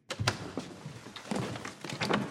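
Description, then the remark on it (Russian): A palace study door is pushed open with a quick latch click and a few soft wooden thunks as a minister enters swiftly without knocking, followed by faint rustling and the footfalls of some twenty officers running in, at modest volume. “Министр вошел стремительно, не постучав.”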